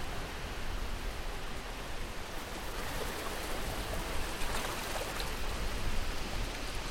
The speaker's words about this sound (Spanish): Pero si escuchas bien, te darás cuenta de que estás muy cerca del mar.